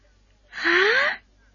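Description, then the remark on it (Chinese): A voice imitates a single loud snore given by a story character with his head lowered: one raspy, breathy snort lasting about half a second, its pitch sliding upward before it cuts off, with silence around it. “牛牛低着头打了一个很响的呼噜”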